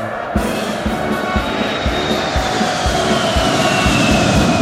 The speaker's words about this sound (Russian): А что это за самолет? Иван, что это за самолет? Это С-1. У него рекордная скорость.